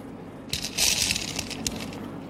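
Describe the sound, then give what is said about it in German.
A large glass jar of 936 marbles is shifted and handled, giving a bright clattering rattle that swells for about a second, then trails off into a few scattered clicks. It is fairly loud, with no talking. “Oder du denkst, jetzt hast du ein grosses Glas von Kugeln 936. Ich habe noch ein anderes mitgenommen.”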